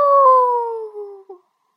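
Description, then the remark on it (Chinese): A person imitates a tyrannosaurus roar with one loud, drawn-out howling cry that slides slowly downward in pitch for over a second, then breaks off with a brief final catch. “夜晚的大海很平静，霸王龙的吼声传得很远，很远。”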